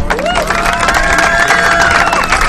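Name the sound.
audience applause and cheering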